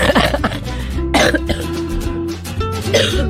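A few short, harsh coughs burst out, spaced unevenly, over a steady musical background with sustained tones.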